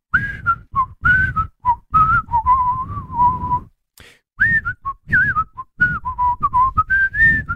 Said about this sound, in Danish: Altså, prøv, prøv fløjt. Bare fløjt øh, melodien, hvis du kan.